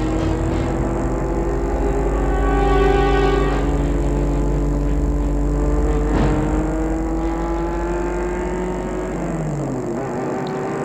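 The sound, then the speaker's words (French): A car engine hums steadily from inside the vehicle as it drives through Versailles to a school and stops near the tennis court. Its pitch rises and falls as it drives and shifts, with a low constant road rumble and no voices. “Il arrête la voiture un peu en retrait de l'école, mais près du terrain de tennis.”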